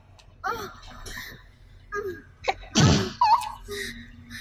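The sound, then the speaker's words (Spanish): A single sharp, loud sneeze bursts out, preceded by a quick intake of breath, with brief bits of talking before and after. “Salud. Salud, pensé que había sido el perro, dije, yo.”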